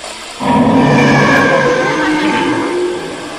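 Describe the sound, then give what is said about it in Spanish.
A blender in an apartment switches on abruptly and runs as a loud, steady motor whir with a buzzing, harmonic whine that wavers slightly in pitch for about three seconds, with no voices. “Mira, se encendió la licuadora.”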